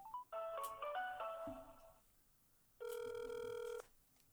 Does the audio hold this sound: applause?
no